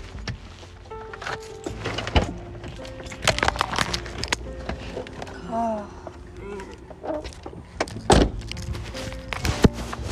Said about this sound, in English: She opened the door like that.